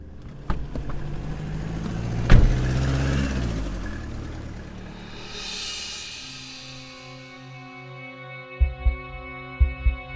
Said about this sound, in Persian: بعدم سوار ماشین شدن و رفتن